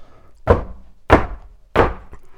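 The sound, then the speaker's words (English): Three firm, evenly spaced knocks on the wooden door of a library, loud, each a solid thud with a short decay, and no voices. “A knock at the door of the library, the library.”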